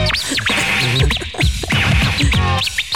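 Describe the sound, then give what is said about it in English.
Rapid turntable scratches sweep up and down in quick, high-pitched chirps, repeating over and over like a bird's call, loud and up front over a thumping beat. “making the track sound like a bird.”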